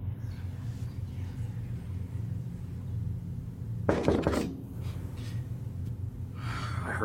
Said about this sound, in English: It was a knock. From where? You didn't hear that? No. It's it's over here.